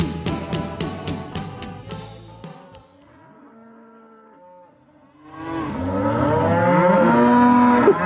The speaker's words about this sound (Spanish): Los ruidos de vacas.